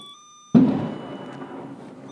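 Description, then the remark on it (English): A sudden, loud crack of thunder bursts in and trails off into a rolling, fading rumble over the next second or two, with no one speaking. “Wow, did you hear that? That was thunder.”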